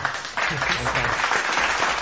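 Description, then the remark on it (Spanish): A burst of applause rises after a brief pause, a dense steady wash of clapping that stays loud to the end, with voices mixed in underneath. “Aquí está aplausos, güey.”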